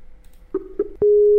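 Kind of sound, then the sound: signal or alarm, telephone busy tone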